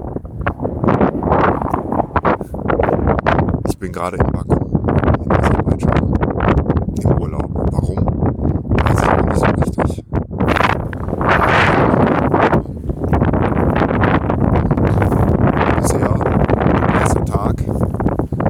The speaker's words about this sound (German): Es ist das Plätschern des Kaspischen Meeres, das wir hier hören.